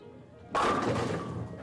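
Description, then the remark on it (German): A sudden loud crash as all the skittles are knocked over in a game of skittles, pins clattering together in a burst that rattles on for about a second before settling. “Und am Schluss fallen alle Kegel um. Bumm”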